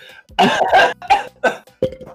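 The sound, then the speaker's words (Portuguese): A person coughs repeatedly, a run of about five harsh, loud bursts with brief gaps, the first two running together before the rest come more separately. “Aí, peraí que dá vontade de tossir.”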